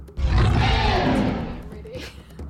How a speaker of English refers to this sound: Suddenly, the Tyrannosaurus Rex lets out a roar.